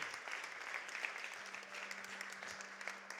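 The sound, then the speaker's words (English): A church audience claps together in praise of God, a dense, steady wash of applause that holds at an even loudness throughout, with a low sustained hum underneath and no voices. “Would you give God a hand clap of praise right where you're at?”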